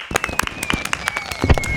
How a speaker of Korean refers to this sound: 불꽃놀이. 불꽃놀이 네.